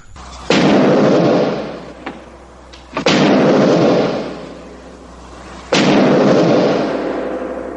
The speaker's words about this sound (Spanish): Las aldabas son las... Los aldabonazos que estaban... Eso es, llegan al castillo, hay unas grandes pues eso,